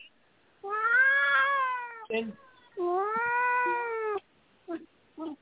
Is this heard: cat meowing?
yes